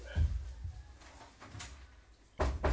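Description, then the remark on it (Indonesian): Someone closes their own room door: a dull knock and rattle, a short quieter stretch of shuffling, then a final firm thump as it shuts. No clear talking. “kayak tunggu tunggu gue tutup pintu gue dulu ya gue gue takut kalau gue ketawa-ketawa ntar ganggu tetangga gue iya iya tutup lah”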